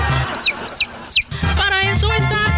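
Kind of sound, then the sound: sound effect, rooster crowing sound effect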